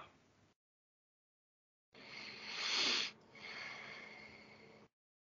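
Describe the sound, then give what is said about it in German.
Heavy, huffing breaths into the microphone: a short breath, a pause, then a long loud rush of air that peaks, breaks briefly and trails into steady panting. No one speaks. “Ich höre schon die Kritik. Nur durch dein Schnaufen.”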